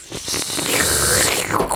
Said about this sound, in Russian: то, что мы пока шумим, шелестим, это все поубавится потом, но нам нужно заварить этот чай, поэтому потерпите немного.